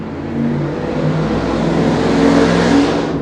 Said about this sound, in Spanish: Bueno, pasó un carro.